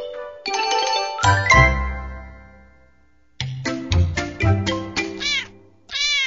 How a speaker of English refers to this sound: This is a kitten.